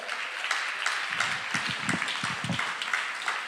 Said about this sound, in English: If you're ready for that, clap your hands unto Him.